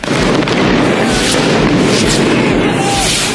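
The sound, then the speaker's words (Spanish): Loud, chaotic bursts of rockets and molotov bombs thrown by protesters exploding, with booms and pops layered over a constant roar of crowd noise and shouting voices. “Los manifestantes lanzaron cohetes, piedras y bombas molotov.”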